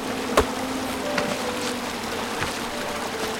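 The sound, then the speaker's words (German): A steady, droning buzz of bees in a video game, with knights fighting the bees, hums continuously at moderate volume, with a few sharp clicks and knocks popping out over the top. “Drüben sind noch die Ritter und kämpfen mit den Bienen.”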